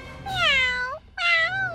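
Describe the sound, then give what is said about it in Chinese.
A cat meows twice, loud and clear with no talking: a long first call that slides downward in pitch, then after a brief pause a shorter, steadier second meow; the cat is calling at a doorway blocked by the pig Napoleon. “猫咪探了探头，可是所有的视线都被拿破仑挡住了。他叫了两声。”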